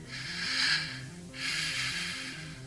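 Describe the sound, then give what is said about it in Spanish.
Two slow, airy breaths, an inhale and then an exhale, heard over a telephone line, fairly loud over a soft, low musical drone that steps between notes underneath. “Carolina creyó percibir una respiración en, el otro extremo de la línea”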